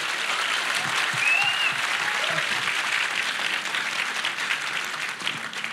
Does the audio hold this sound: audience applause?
yes